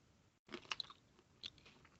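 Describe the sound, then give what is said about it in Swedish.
Wet chewing of a large mouthful, with crunchy bursts clustered near the start and again midway, ongoing and irregular with no talking. “Jag tog en så stor bit. Mm. Det är svårt att känna i början vad den smakar. Jag måste typ ta två tuggor.”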